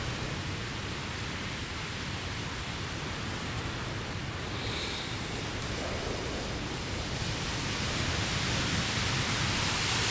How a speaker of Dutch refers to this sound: Dit is de wind.